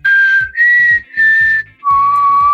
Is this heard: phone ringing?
no